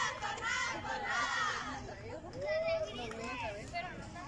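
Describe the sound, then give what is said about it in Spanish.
The Tornadas team's young voices shout together in a loud, energetic group cheer after their 6-1 win over Inacats, layered overlapping cries rising and falling for a few seconds with crowd noise underneath. “Ahí lo que es el grito por parte del equipo de Tornadas.”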